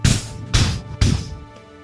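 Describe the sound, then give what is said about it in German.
A voice imitates with the mouth loud knocking on a heavy wooden door: three heavy, evenly spaced thuds about half a second apart, the last one ringing out and fading. Fairly loud, with no other talk. “Das klingt erstaunlich klopfig übrigens, was ja, du da mit deinem Mund machst.”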